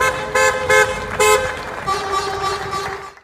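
Car horns honk repeatedly in short bursts, then one longer sustained blast, loud with a busy harmonic tone over a low background rumble, honking alongside clapping and shouting in a carnival-style ritual to drive away the coronavirus.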